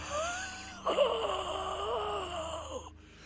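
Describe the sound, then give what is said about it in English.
A man lets out a drawn-out, agonized wail that wavers in pitch, surges harder partway through, then breaks off. It is a single continuous, voice-acted cry, heard alone without speech. “He's devoured them and now he's melded into the house. You hear him scream.”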